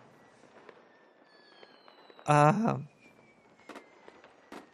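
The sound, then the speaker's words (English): Fireworks crackle and pop outside, with faint whistling streaks and scattered sharp bangs, while a person briefly makes a loud hesitant sound near the middle. “Jeez, there's some a lot of fireworks going off over here.”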